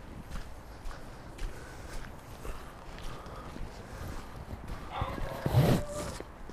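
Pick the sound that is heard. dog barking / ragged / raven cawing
dog barking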